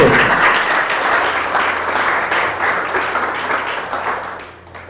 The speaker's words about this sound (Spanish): ¿Cuántos tienen al Señor? Denle un aplauso entonces esta noche.